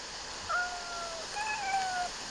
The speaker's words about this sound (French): Putain, j'entends le chat au loin.